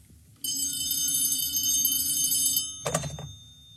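An old telephone bell in the radio play Vicious Circle rings in one long, shrill, buzzing burst of about two seconds, followed after a short pause by a brief clunk like the receiver being lifted.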